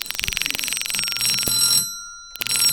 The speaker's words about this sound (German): Nach dem gleichen Prinzip wird gemorst, kurzes Zeichen, langes Zeichen. Ihr habt hier an dem Stottern der Klingel gehört, zuverlässig war das nicht.